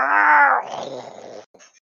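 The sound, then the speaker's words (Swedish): A person voices a loud, strained shriek imitating a large flying beast. It opens as a harsh, sustained cry, breaks into a raspy, breathy trail, and ends with a brief faint sound after a short pause. “Och så hör ni något skrik som”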